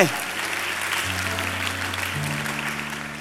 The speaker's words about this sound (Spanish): Si usted lo cree, diga amén y denle un aplauso a Jesús, por favor.